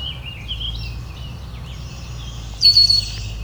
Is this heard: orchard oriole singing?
yes